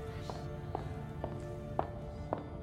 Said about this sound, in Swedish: När klackljuden hördes i korridoren utanför stelnade vi till. Sen klev hon in. Madame Koi Koi.